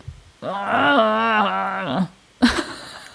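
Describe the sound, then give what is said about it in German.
A person imitates a moaning sound like fighting bears with a long, strained, wavering groan lasting over a second, loud, followed by a brief gruff grunt. “So Bären im Kampf.”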